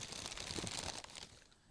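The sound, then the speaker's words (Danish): Thick newspaper paper being crumpled and crinkled, a dense burst of crackling rustles for about a second that then thins out and fades. “Og væk, altså, den skarpe lytter kan måske høre, hvad det er for en avis. Altså, det er jo, det er jo noget af det lidt tykkere papir.”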